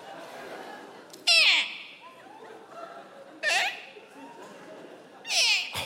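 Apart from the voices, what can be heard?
seagull calling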